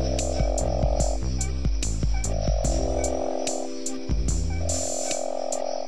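A Boie's frog gives long, low, droning croaks, repeating about every two seconds, with steady ticking pulses running underneath. The calls are loud, and no one speaks.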